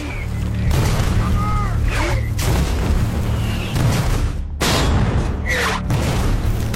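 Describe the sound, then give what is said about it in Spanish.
Dense, continuous battle noise of German fire along a road: heavy artillery booms and rolling gunfire overlap throughout, loud, with a brief dip before the barrage resumes. “Disparaban y los proyectiles invadían toda la carretera.”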